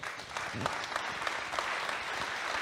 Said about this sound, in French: Je crois qu'on peut les applaudir très fort.